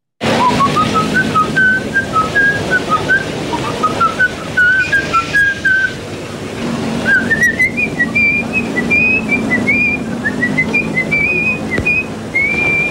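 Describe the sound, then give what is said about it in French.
Someone whistles a tune from a film alone, clear, in two long phrases of rising and falling notes with a brief pause between them, over a low background rumble. “Sifflement totalement inquiétant donc d'un film somptueux et évidemment un film euh, qui est dramatique.”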